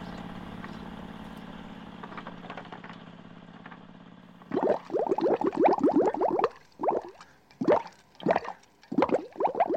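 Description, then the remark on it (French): Water sloshes and splashes in a baby's bath: a steady low running-water hum at first, then bursts of irregular, fairly loud splashes in quick clusters with short pauses between. “Bon, je vais aller donner le bain au petit tout.”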